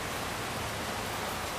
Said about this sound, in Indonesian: suara hujan jatuh ke bumi ini itu suara yang bisa menghilangkan stres. Stress. Jadi refleksi otak kita tuh enak aja gitu bawaannya.